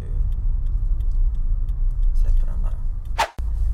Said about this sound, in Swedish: Och där kommer en lastbil